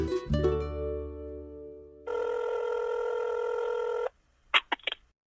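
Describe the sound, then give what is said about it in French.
A phone call being placed to a paleontologist: a bright chiming tone that rings out and fades, then a steady buzzing ring tone held for about two seconds, cut off by a few quick clicks. “hmm, je vais appeler un paléontologue.”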